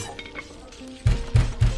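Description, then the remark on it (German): Three loud, heavy knocks on a door, evenly spaced in quick succession, each a dull booming thud that follows a stretch of faint background noise. “Es, es klopft an der Tür.”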